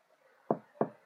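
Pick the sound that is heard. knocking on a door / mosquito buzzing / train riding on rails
knocking on a door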